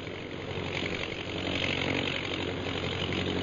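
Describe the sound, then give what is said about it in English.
Ten propeller bombing planes drone overhead in a steady, continuous engine roar, fairly loud and unbroken throughout, with a low rumbling hum beneath and no voices. “Ten bombing planes, eh?”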